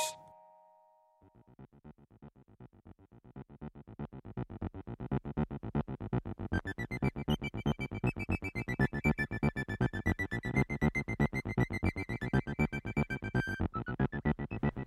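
A band plays loud, dense, heavy rock with a fast driving beat and sustained distorted guitar tones, kicking in after a brief opening tone and continuing at full volume.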